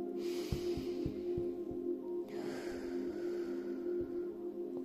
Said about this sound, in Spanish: Vamos a dar una respiración profunda.